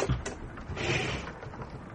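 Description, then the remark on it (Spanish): A sliding compartment door in a train carriage rolls open in one continuous scraping, rumbling motion that lasts a couple of seconds, at moderate volume, with a brief knock at the start. “Comenzó a caminar por el estrecho pasillo bordeado de ventanillas negras por su lado izquierdo y por las puertas correderas a su derecha. Abrió la primera.”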